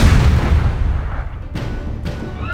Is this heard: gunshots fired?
yes